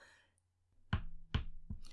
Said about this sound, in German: Da hörte ich es, dieses Klopfen wie wenn jemand gegen eine Tür hämmern würde.